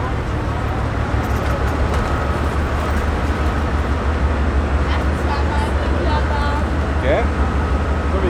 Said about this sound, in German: Diese Dieselloks sind wahnsinnig laut